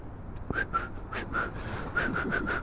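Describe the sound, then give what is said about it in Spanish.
Someone who cannot whistle tries to whistle through their lips, producing a quick series of breathy, airy puffs with only a faint thin tone breaking through, fairly quiet. “a ver, silbar es...”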